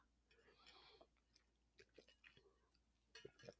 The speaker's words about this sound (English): Sorry, I'm just drinking my water.